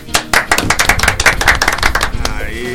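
A short burst of brisk clapping from a small group welcoming a guest singer on the program Miolo Virtual, a rapid string of sharp claps that fades out near the end as a faint steady tone comes in.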